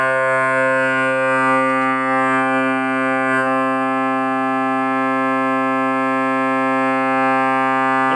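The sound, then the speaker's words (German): A single pipe in the main division (Hauptwerk) of an organ holds small c, a steady, reedy tone rich in overtones that sounds without a break for about eight seconds, its timbre shifting slightly partway through. The pipe is in tune after its tuning slot was opened. No one speaks. “hört man, dass die Pfeife stimmt, indem ich den Schlitz geöffnet habe.”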